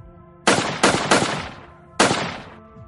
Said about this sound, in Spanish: Dispara cuatro balas, hiere a tres personas.